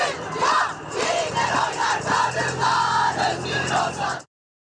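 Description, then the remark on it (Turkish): A dense crowd of women protesters shouts and chants slogans together in an Istanbul street they have closed to traffic, marching toward the Golden Horn (Haliç), loud and continuous for several seconds, with voices overlapping before cutting off abruptly. “Cadde cadde sokak sokak haykırdı kadınlar. Seslerini duyurmaya çalıştılar.”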